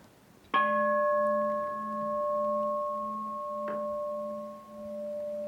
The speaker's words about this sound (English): just to simply know when you hear the sound of the bell.